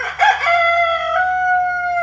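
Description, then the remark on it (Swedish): A rooster crows once, walking back and forth on the edge of a slippery roof in the rain: a loud, drawn-out cock-a-doodle-doo that starts with a rough burst and holds a steady, bright call for about two seconds. “balanserade på takets kant, gick fram och tillbaks och gol.”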